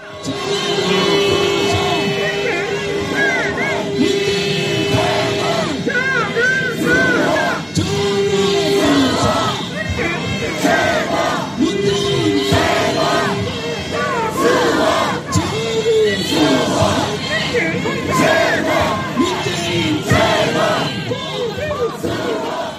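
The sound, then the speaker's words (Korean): Two large outdoor crowds, a conservative counter-rally and a candlelight rally, chant slogans at the same time. Their rhythmic shouted calls overlap and blend into a loud, continuous roar of massed voices with no pause. The conservative side chants against Moon Jae-in and Cho Kuk, and the other side answers with 'best' and 'protect'. “소위 이제 보수 마풀 집회와 그 촛불 집회 구호가 서로 앙상블이 돼서 웃음, 웃음이 터지는 장면이 있어요.”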